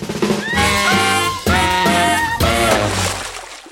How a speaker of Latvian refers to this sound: Klausieties, kāds izklausās signāls, kad atbildi nepareizā!